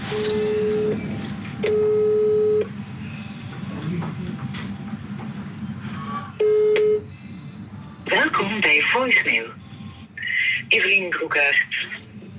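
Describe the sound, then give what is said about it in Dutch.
A phone line ringing during a call to the caller's wife: steady, mid-pitched ringback tones repeat three times with pauses between, followed by bursts of higher, warbling chirpy sounds over a faint background hum. “Intussen bel ik naar mijn vrouw”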